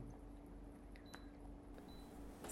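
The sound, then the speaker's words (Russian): An air conditioner gives two short, high-pitched electronic beeps, about a second apart, as it is set colder, over a steady low hum. “Сейчас я сделаю кондей похолоднее.”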